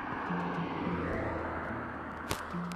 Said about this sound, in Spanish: Eh, pasó un carro, sí,